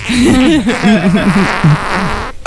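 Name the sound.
fart sound effect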